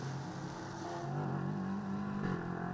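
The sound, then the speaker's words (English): The number 26 K2R Motorsports race car, driven by Kay van Berlo, roars by loud and continuous, its pitch climbing as it accelerates before dipping briefly near the end. No voices are heard. “And that's the number 26 car with Kay van Berlo behind the wheel, sharing with uh, Matt Bell, who started the car, and Jim McGuire Jr.”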